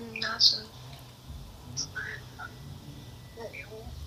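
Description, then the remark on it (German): Faint keyboard typing in the background: a scattering of soft, irregular key clicks over a low, muffled hum, quiet. “Ich höre eine Tastatur im Hintergrund, du auch?”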